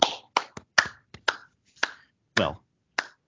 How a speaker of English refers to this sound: Clap your hands. Yeah, golf clap, everybody.